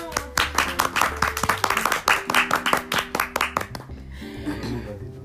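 A short burst of lively applause, quick clapping from a small group of audience members, lasting a few seconds before fading into quieter background sound.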